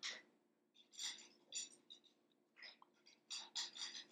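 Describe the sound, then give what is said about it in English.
A dog eats from a bowl, its kibble clinking and rattling against the dish in irregular bursts, moderately quiet over a low steady background hum. “Y'all, excuse, if, if, you can hear in the background, I'm just sorry. Um, our dog is eating.”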